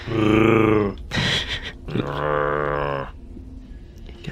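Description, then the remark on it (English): A static zombie-like growl from an animatronic zombie among Halloween decor, triggered when someone passes by: two loud, drawn-out groaning growls separated by a short raspy, crackling burst, then the sound fades into quiet hiss. “Complete with sheet ghosts and animatronic zombies that gave a static growl when you passed by.”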